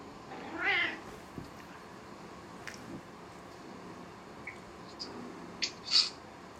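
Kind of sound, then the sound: animal, cat meowing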